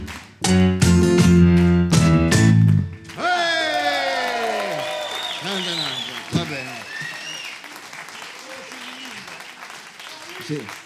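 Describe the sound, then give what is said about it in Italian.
Audience applause bursts in right after a loud sustained musical chord, a dense steady wash of clapping mixed with cheers and rising, falling whistles, gradually thinning toward the end. “Tenetevi gli applausi per dopo.”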